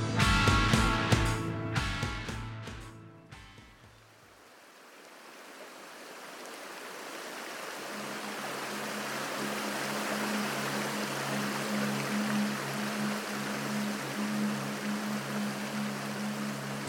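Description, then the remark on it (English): A few seconds of musical notes cut off, giving way to a steady, full roar of rushing waterfall water that swells and then holds constant, with a low droning hum joining later. “You are no longer rushing towards the edge of the waterfall.”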